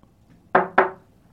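Two sharp, clear knocks on a door, spaced about a quarter second apart, each with a brief resonant decay, against near silence.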